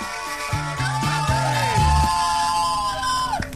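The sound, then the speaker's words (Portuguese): An audience, asked to shout as loudly as it can, shouts and yells at full volume, many voices overlapping in a continuous, loud roar with rising whoops and bellows throughout. “Quero que gritem com força, gritem com força.”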